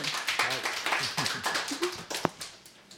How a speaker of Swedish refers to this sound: Välkommen! Stor applåd!